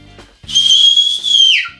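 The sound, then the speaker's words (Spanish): A loud, piercing human whistle, a goatherd's whistle used to test whether a dog is deaf, holds one high steady pitch for about a second before sliding down at the end, heard alone. “El silbido del cabrero, y evidentemente si no oye eso es que está sordo, pero la gran mayoría si lo oye, hacen con, las orejas imparables.”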